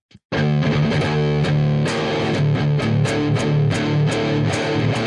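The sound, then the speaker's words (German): Heavily distorted electric guitar with metal distortion chugs through a tight, rhythmic riff of short, choppy palm-muted hits, loud and dense with a thick low end, played alone without any talking. “Wo wir schon die Metal-Zerre anhaben.”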